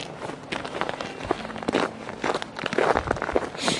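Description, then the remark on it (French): Footsteps of several people hiking outdoors toward a sheepfold on a day when the sun is slightly veiled and it is not cold, a steady irregular crunch of feet on rough ground, with scattered crackling steps and no voices. “Ou alors on, on s'est déjà réchauffé en marchant quoi.”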